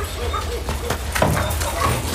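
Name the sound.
dog barking and whimpering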